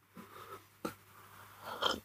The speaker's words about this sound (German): Ähm, sorry, ich musste, musste kurz an meinem Kaffee nippen.